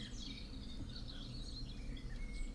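Birds chirp and twitter softly in the background, a steady scatter of high calls over a low ambient rumble, with no one speaking.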